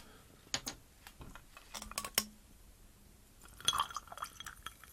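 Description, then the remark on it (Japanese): A drink with Bombay Sapphire is poured into a glass of frosted ice: a few sharp glassy clinks and ticks, then a brief burst of fizzy, crackling liquid sound near the end as the frost melts. No one speaks. “今、しもしもになっていたやつに、こう、飲み物を注いだんですけど、しもしもの部分だけなくなりました。”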